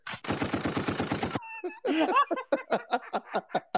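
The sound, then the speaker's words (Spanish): A loud burst of rapid machine gun fire sound effect rattles off about a dozen shots in a second, then cuts to a short whine and a string of chuckling laughter. “mándale un rafagazo a ese hombre.”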